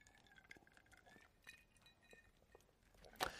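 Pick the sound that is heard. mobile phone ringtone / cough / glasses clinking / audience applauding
glasses clinking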